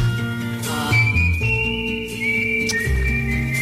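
A whistled tune carries a slow melody of long, sustained high notes over a steady instrumental backing, loud, with no voices.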